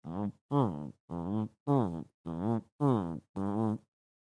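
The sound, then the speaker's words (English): Seven loud, blaring low tuba notes sound in a steady, evenly spaced rhythm, each a short buzzy blast with a slightly bending pitch, prominent with no talking. “Here comes Mersh, and you can already hear the tubas.”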